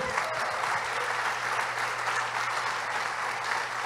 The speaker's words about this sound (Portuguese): Aplauda o Senhor.